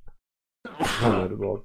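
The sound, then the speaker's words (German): A single sneeze after a brief pause: a quick intake of breath, then a sharp, loud burst that trails off into a voiced tail. “Gesundheit.”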